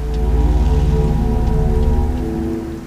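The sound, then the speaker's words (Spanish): Steady rain pours with a dense, hissing wash and a low rumbling undertone, then eases off and grows quieter in the final moments. No voices. “Bajaron las manos y la lluvia, al instante, disminuyó considerablemente.”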